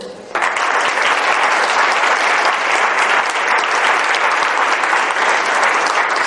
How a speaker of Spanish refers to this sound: Y esos aplausos, pues son los que hacemos. Vamos a practicar un aplauso, por favor.